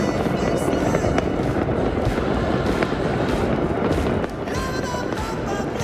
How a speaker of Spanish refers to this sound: oye, el otro allá en Nápoles también. dónde está? Una locura, de verdad. Ahí los fuegos artificiales.